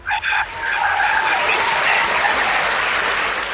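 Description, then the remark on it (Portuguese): A burst of applause sound effect: dense clapping from a crowd that swells quickly and holds steady and loud for a few seconds, with a brief tonal blip at the start. “Um é de palmas.”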